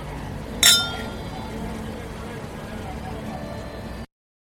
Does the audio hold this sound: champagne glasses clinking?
yes